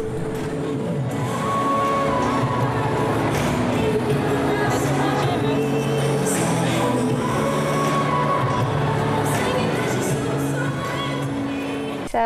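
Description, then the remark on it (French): Loud, continuous music played at full volume by a DJ in a shopping mall in Manila, Philippines, during Valentine's Day sales, steady throughout, with the murmur and occasional shouts of a large crowd blended underneath. “c'était la musique euh, mise à fond par un DJ dans un mall pour les soldes de la Saint-Valentin.”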